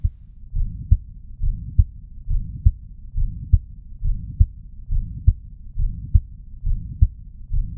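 A steady heartbeat heard through a stethoscope, a regular lub-dub pulse of deep muffled thumps repeating about nine times, with a soft low whooshing between beats and no voices.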